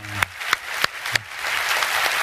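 A church audience breaks into applause giving glory to God, a few sharp early claps quickly swelling into steady, dense clapping that holds at a moderate level, with a brief voice at the start.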